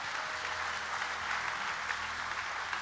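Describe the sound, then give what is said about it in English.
Steady, dense applause from an audience, many hands clapping at once in a continuous wash of sound with no voices rising above it, holding at an even level throughout. The audience is giving a hand clap for the Lord after a prayer at a church service. “Can we give the Lord a good hand clap today?”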